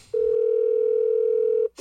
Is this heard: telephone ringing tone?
yes